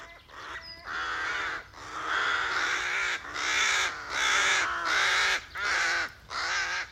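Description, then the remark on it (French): A colony of crows nesting close together in village trees caw and squabble over one another while defending their nests, in a continuous harsh chorus, with overlapping raucous calls rising and falling in loud bursts and brief dips between them. “Les clans croassent, jacassent et se disputent en permanence pour défendre leur logis, car il est très facile de se faire chipper des branchages.”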